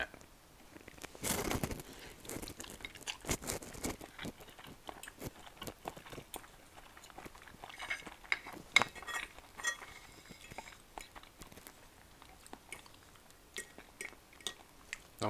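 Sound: eating lunch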